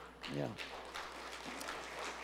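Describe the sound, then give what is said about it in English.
A church audience applauds for a woman back three weeks after a heart transplant, a steady, even wash of clapping, with a single voice calling out briefly near the start over the noise. “Yeah, let's clap for her.”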